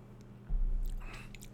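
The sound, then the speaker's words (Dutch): A quiet sip of water: a soft bump against the mic, then brief wet mouth and swallowing sounds, with no talking. “Ik neem even een slokje water.”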